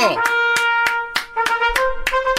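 Sharp hand claps ring out in a steady rhythm, about seven in quick succession, loud, over a sustained, tonal voice-like drone.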